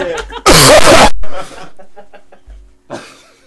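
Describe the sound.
A loud, harsh cough bursts right up against the microphone, followed by quieter, breathy coughing sounds and brief snatches of voices.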